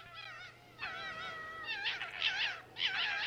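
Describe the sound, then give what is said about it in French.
Fox calls: a run of high, wavering whining yelps and screeches in four close bursts, some overlapping as if several animals call together, fairly loud over a faint low hum. “C'est tout à fait des renards.”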